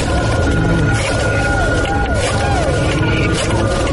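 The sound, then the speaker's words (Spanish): A dial-up modem connecting to the internet, with a steady electronic tone, repeated warbling chirps and a dense, harsh hiss of noise, loud and continuous throughout. “¿Recuerdas el sonido de tu modem conectándose a internet?”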